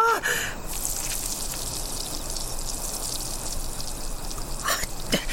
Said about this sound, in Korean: 아, 개도 아니고 곰파리가 싼다고 같이 싸냐? 아빠가 전봇대에 오줌을 휘갈긴다.